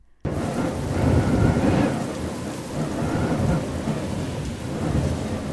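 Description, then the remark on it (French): A steady downpour of rain with deep, rolling thunder rumbling underneath, loud, starting abruptly and continuing without pause; no voices are present. A storm breaking at the start of a 50 km footrace. “Pour ne rien arranger, une tempête commence au départ.”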